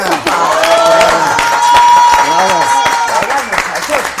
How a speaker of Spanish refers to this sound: Ahora, esta niña Paola una gran atleta. Los respetos, hombre. Pues, ¡Aplausos!